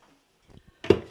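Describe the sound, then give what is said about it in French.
After a moment of near silence, a couple of soft clicks lead into a short burst of clattering and knocking as a coffee maker is handled and filled to brew coffee. “Voilà, donc là je remplis ma cafetière.”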